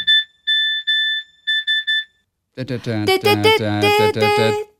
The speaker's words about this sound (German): SMS. 1, 2, 3, 1, 2, 1, 2, 3. Achso, SMS, okay. Ja, SMS. Warum habe ich denn das? Ich habe doch ein Nokia. Wofür habe ich denn den Schrott? Ah, vielleicht, weiß nicht genau. Hast einen falschen Ton eingestellt.